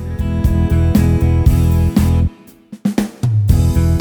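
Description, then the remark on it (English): A keyboard's auto-accompaniment style plays loud and steady. When the Break button is pressed during a song, it breaks for one measure into a sparse, choppy fill before the full pattern kicks back in. No voices. “If I press this button while I'm playing a song, the accompaniment style will break for one measure from its normal playing and give me a little bit of a fill in.”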